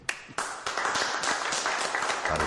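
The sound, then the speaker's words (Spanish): An audience breaks into applause for themselves for continuing to come, a dense, steady wash of many hands clapping that starts abruptly and keeps going at an even, fairly loud level throughout. “Y por último, un aplauso para ustedes, por seguir viniendo.”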